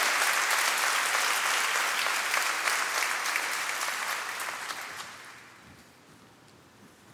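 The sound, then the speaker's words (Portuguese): An audience breaks into sustained applause for the Lord, a dense wash of many hands clapping steadily for about five seconds before thinning out and fading away. “Dá uma salva de palmas ao Senhor, porque é uma decisão.”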